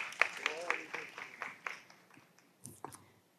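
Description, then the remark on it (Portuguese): A church audience, standing, claps to praise the Lord for his word in a loose, fairly quick rhythm for about two seconds, with voices murmuring underneath, then the clapping thins out into a few scattered claps and fades away. “Aplauda o Senhor por Sua palavra.”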